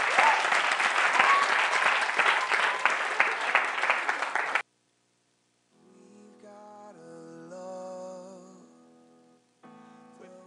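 A loud burst of audience applause fills the first four and a half seconds with dense, steady clapping, then cuts off abruptly into silence before tonal music begins.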